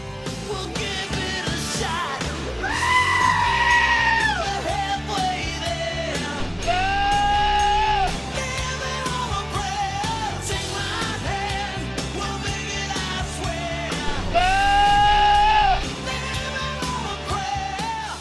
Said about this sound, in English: Those are goats. Those are goats singing for that song.